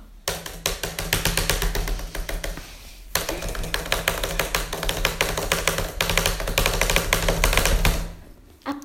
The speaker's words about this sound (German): Und zwar äh, muss ich hier eine Geschichtshausarbeit machen und ihr könnt mir zuhören. Hört, wie ich tippe.